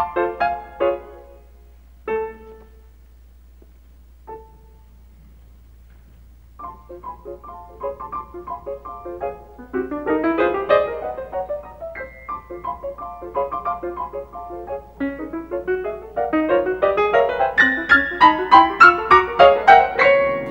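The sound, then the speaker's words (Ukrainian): Solo piano playing Mussorgsky's 'Ballet of the Unhatched Chicks' from the piano cycle Pictures at an Exhibition: a few sparse, detached chords separated by pauses, then quick, high, chirping trills and repeated rapid figures that grow busier and louder toward the end. “Одну з п'єс балет невилуплених пташенят ми почуємо в нашій програмі.”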